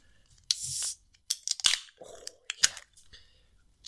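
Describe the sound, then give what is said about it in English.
Cans of a supermarket-bought hazy beer cracking open: a sharp pop with a bright fizzing hiss lasting about half a second, then several crisp metallic clicks and snaps from the tabs, with no talking over them. “Should we crack them open? Let's crack them.”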